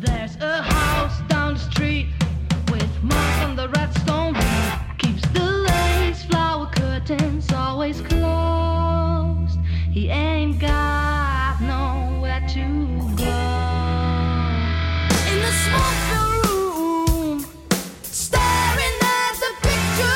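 A rock band recording plays loudly and continuously for about twenty seconds, with heavy bass, driving percussion and a wavering melodic lead line over the full-band sound.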